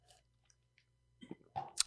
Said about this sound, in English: Yeah, I think sips on drink sips on drink right. What are you drinking today?